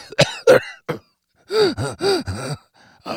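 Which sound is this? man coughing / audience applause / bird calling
man coughing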